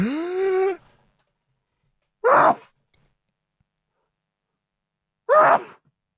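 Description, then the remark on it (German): A drawn-out voiced breath gives way to two sharp, loud sneezes a few seconds apart, with silence in between. “muss niesen.”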